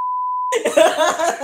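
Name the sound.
censor bleep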